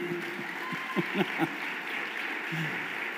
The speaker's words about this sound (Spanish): Dale ovación al rey.